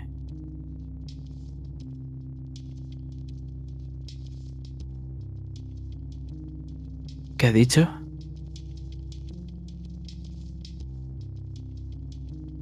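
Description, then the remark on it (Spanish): Loud machinery drones steadily from start to finish, a low, layered mechanical hum with a short, sharp burst of noise partway through, while a voice speaks briefly over it. “Lo siento, la maquinaria hace demasiado ruido.”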